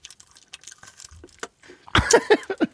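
Wet chewing and lip-smacking of a Duplo chocolate bar into the microphone, starting with soft scattered crunches and clicks, then a few loud smacking bites right at the microphone near the end.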